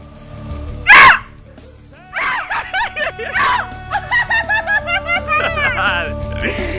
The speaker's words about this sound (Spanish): ¿Cómo lo, ¿Cómo lo oyen? ¿Cómo lo oyen? Necesitan aguantar más, ¿no? Los gritos necesitan aguantar más.